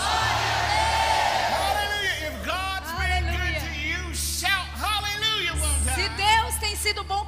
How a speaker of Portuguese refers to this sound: Alguém grite glória a Deus essa noite. Come on, shout glory one more time. Vamos lá, grite glória mais uma vez.